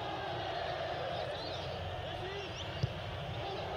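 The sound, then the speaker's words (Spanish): A stadium crowd at a football match between León and Necaxa booing in a steady, dense roar that holds for the whole stretch, with one brief thump standing out near the end. “Y ahora otra vez el abucheo la gente haciendo su partido, Tate.”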